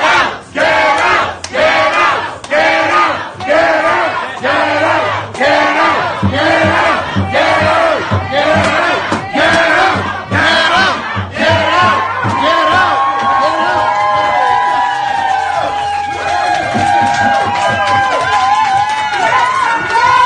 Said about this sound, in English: spontaneously, everyone in that restaurant, pub, whatever it is, started shouting, Get out, get out.